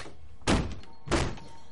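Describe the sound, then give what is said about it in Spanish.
Two heavy thuds of someone, hands bound with zip ties, pounding on a door, spaced about half a second apart, each ringing out briefly before fading. No voices are present. “Tiene las manos atadas con bridas y golpea la puerta.”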